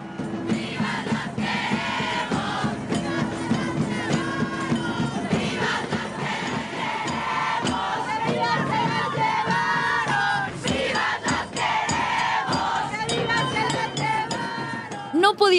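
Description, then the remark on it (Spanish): A large crowd of protesters shouts and chants slogans together during a march, loud, a dense wall of overlapping raised voices that stays steady and intense for the whole stretch, with occasional sharper yells breaking through. “Luego aprendí que el gritar las consignas y por el enojo que expresamos durante las marchas, mucha gente se espantaba y se alejaba en lugar de escuchar el mensaje que queríamos decir.”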